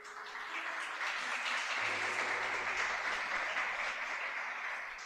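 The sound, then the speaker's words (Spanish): Steady crowd applause, a dense wash of many hands clapping at once, fairly loud and sustained for about five seconds, with a low hum underneath and no talking. “Oh, no deje que ese hermano aplauda solita.”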